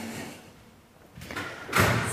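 A door with a sign asking that it be closed quietly is pulled shut: a soft rumbling slide builds, then a single muffled thud lands, leaving a faint hiss afterward. No one speaks.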